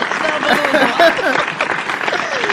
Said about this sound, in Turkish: Alkışlar gönderiyorum sana.